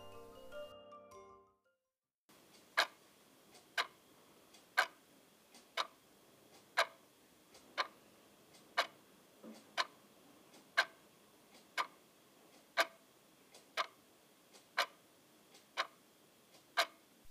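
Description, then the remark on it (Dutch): A clock in a house ticks steadily, about one sharp tick per second, clear against quiet, preceded by a brief tonal musical snippet at the very start. “Ik hoor de klok tikken.”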